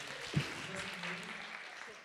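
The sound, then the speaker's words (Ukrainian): An audience claps in a steady, dense wash of applause lasting a couple of seconds, with a brief louder burst near the start and faint crowd voices mixed underneath, applauding as two people walk into the hall. “Під ваші оплески два самотніх серця йдуть в зал.”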